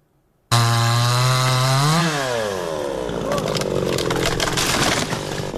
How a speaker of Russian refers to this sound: Возле разрушенного в прошлом месяце российским авиаударом здания местные жители прифронтового поселка Очеретина пилят поврежденные взрывной волной и осколками деревья. Пока нема дождей, сухое дерево. На дрова, на буржуйку.